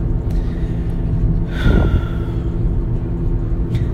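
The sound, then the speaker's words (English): A steady, low engine rumble fills the cabin of a car driving to work, with a brief higher squeak or whine rising over it partway through and no talking. “So, all right, well, maybe I'll go ahead and put on some of my favorite songs and have a car party on the way to work.”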